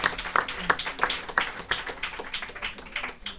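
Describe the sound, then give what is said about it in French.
A crowd applauds at a moderate level, with some sharper claps standing out in a quick, fairly regular rhythm over a dense patter of hand claps. No one speaks. “Merci, on l'applaudit, même si euh, il nous entend, j'en suis certain.”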